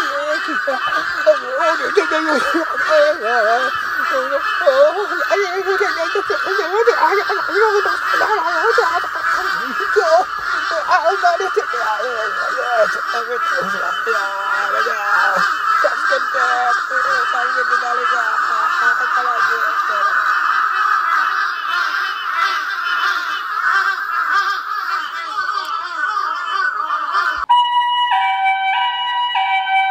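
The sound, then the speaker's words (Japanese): A large flock of crows attacking a man who was singing caws loudly and nonstop, many harsh overlapping calls forming a dense, raucous chorus, then breaking off near the end into a few short electronic tones. “えー、こちら現場からお伝えいたします、えー、今日ですね未明、えー、男性が歌を歌っていたところカラスの大群に襲われるという事件が起きました”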